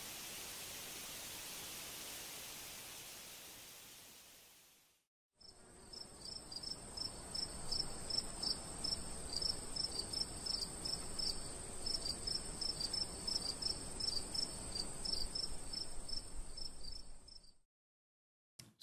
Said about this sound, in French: le chant du grillon, c'est surtout le nombre de grillons, dans un aspect assez lointain en distance, qui rappelle ce chant subtil. Néanmoins, un simple chant du grillon seul peut suffire à déclencher la résonance de notre champ subtil intérieur.